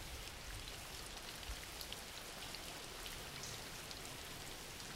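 Steady rain falling, a dense continuous hiss with scattered patter of drops, even in loudness throughout with no voices.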